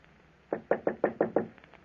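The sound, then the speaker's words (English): A quick series of six firm knocks on a wooden office door, evenly spaced, trailing off with a couple of softer taps. “I was in my office when I heard a knock on the door.”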